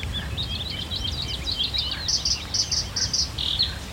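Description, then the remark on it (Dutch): A sedge warbler sings a fast, scratchy chattering song, mixing rapid churrs with repeated sharper phrases, over a low rumble of background noise. “Hier hoor je gekwetter. Dat is een rietzanger.”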